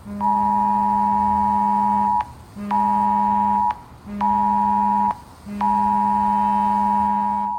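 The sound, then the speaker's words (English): A loud, harsh Amber Alert emergency tone from a mobile phone, warning of a weather event, blares in four long buzzing blasts separated by brief gaps, steady, with no voices. “We arrived back on Friday night to an amber alert. Remember those? They sound a bit like this”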